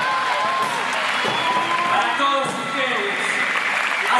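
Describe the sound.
Sustained audience applause, a dense, steady wash of clapping that stays loud for the whole stretch, mixed with scattered cheering voices and shouts from the crowd.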